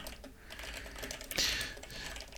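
Rapid, uneven clicking of keys on a computer keyboard, fairly quiet, with a brief louder burst of clacks midway through. No one speaks.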